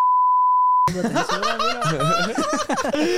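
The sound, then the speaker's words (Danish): A steady, high-pitched censor bleep sounds for nearly a second, masking a spoken word, then cuts off abruptly into loud laughter and animated voices. “Bip det der ud, okay?”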